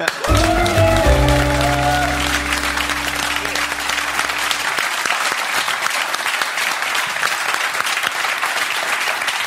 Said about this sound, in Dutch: Ik wil een heel hartelijk applaus voor Jort Kelder.